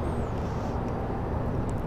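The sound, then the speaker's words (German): A steady, dense low rumble of trains mixed with the wash of the River Thames at Blackfriars railway station, which sits over the Thames; continuous and fairly loud throughout, with faint higher hiss and no voices. “Man kann ein bisschen die Züge im Hintergrund hören und ein bisschen auch die Themse an sich.”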